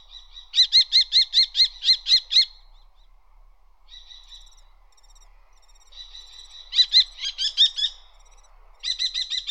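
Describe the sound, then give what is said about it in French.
A common kestrel, a small falcon, calls while perched by day, giving bursts of short, shrill, rapidly repeated calls, each series of about eight notes, separated by brief pauses with fainter calls between, with no talking. “Il émet des cris aigus, au perché, courts, répétitifs.”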